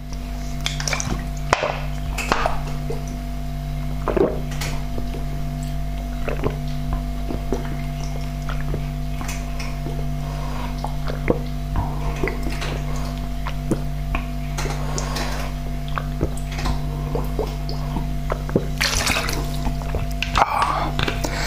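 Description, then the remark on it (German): Flat Selta mineral water being emptied from a bottle, heard as a run of irregular drips, splashes and small glugs over a steady low electrical hum, with no talking. “So, ich habe hier noch einen Rest Selta. Der hat zwar keine Kohlensäure mehr”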